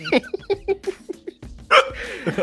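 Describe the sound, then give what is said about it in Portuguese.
A person hiccups amid a run of short, breathy laughing bursts, with one sharper, louder catch about two-thirds of the way through. It is fairly loud, with no clear words. “Ignora o soluço aí, né, cara?”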